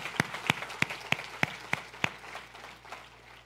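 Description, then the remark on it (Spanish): An audience claps in a steady, even rhythm: about seven sharp, bright claps in quick succession, then the clapping thins out and fades to softer scattered pats. “Un aplauso a Jesús. Un aplauso al Señor.”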